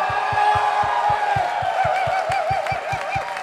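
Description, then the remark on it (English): An audience yells and cheers loudly and continuously for a new Christian team, many voices blending into a sustained roar, with a steady rhythmic low thumping, like stomping or a drum, running underneath. “All right, you need to give this is not a clap, this is a yell now. So, let's have a yell for our new Christian team.”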